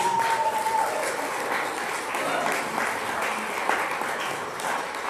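Steady audience applause fills the whole stretch, a dense, even patter of many hands clapping at a consistent loudness with no pauses, and no voices standing out above it.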